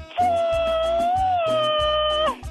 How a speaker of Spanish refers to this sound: ¡Qué intensa! La dueña del grito ametralladora y no se aceptan imitaciones.